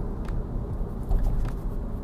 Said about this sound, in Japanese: 休日のお昼ちょっと仕事がありまして通勤中の車の中からお届けしております